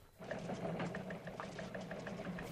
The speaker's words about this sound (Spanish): Un rumor de máquinas de escribir comenzó a envolverle. Luego eh, se halló ante la vorágine de la sala de redacción. Los, teletipos zumbaban en sus oídos, las máquinas de escribir ametrallaban sus sentidos.